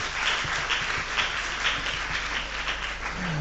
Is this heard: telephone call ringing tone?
no